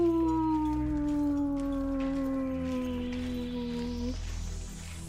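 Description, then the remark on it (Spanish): A single long wolf howl holds a steady, slowly sinking pitch for about four seconds before breaking off, carried over a low, continuous rumbling background. “No te vayas a la cama, aún queda noche de lobos por delante. ¡Au, au, au!”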